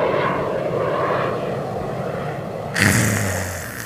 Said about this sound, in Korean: 비행기 달리는 소리, 비행기 이륙하는 소리라고 여기에 정확히 대본에 써 있어요.